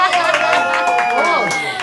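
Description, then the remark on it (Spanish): An audience claps and cheers at steady volume, a dense patter of clapping mixed with whooping, gliding voices, lasting under two seconds. “¡Aplauso, por favor!”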